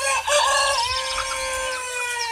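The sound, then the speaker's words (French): A rooster crows loudly over a busy chorus of clucking hens, the calls overlapping and sustained for a couple of seconds with no talking. “Les uns crient cocorico très haut, les autres gloussent et caquettes très bêtes.”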